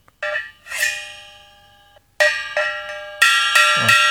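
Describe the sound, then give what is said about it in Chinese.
A small bell, used in a sung passage of the Chinese opera The Injustice to Dou E, rings out in about six irregular strikes, each a bright, high, shimmering tone that lingers and fades, with a brief pause midway and no voices. “然后这个铃铛它代表着在后面那个《窦娥冤》那个唱段中有用到这个铃铛，它就是代表着天 天上 上的”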